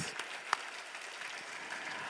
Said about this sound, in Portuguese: Enfim, vamos dar uma forte, forte salva de palmas para todos esses voluntários. Uau! Glória a Deus.